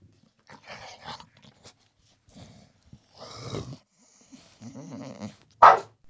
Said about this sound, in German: ja, das war äh, das Tschüss vom Hund.